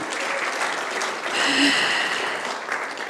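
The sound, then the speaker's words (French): A crowd claps steadily for a guest at an evening event at the ENSA, a dense wash of many hands that swells slightly in the middle before easing off, with no voices standing out. “On peut l'applaudir d'être là ce soir avec nous.”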